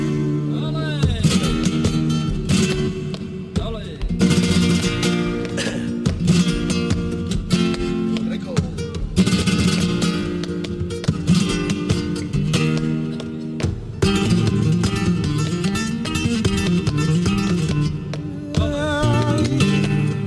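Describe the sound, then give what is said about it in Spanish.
A flamenco bulería por soleá performance: a wailing, melismatic voice sings over steady guitar accompaniment, loud, continuing without pause for the whole stretch. “haciendo esta bulería por solea.”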